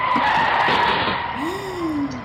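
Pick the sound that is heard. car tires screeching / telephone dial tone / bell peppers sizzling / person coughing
car tires screeching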